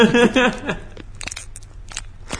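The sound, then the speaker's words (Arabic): A brief voice sounds at the start, then a plastic snack bag crinkles and crackles in irregular bursts, like it's being pulled open, fairly loud against a quiet background. “السينما انت جاي تبي تبطل قرطاس وقاعد طالع فيلم ولا واحد مثلا وراك قاعد يبطل قرطاس ولا صاحبك قاعد يبطل قرطاس اعلى من صوت الفيلم يصير عرفت؟”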